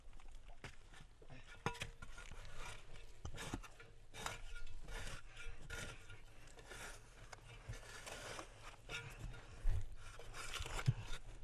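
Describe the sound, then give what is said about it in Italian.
Quiet scraping and tapping as a hammer digs into soil and the earth is carried out, with irregular gritty scrapes and occasional sharper knocks repeating throughout, no voices. “Con il martello o altri strumenti scava ancora, porta fuori la terra”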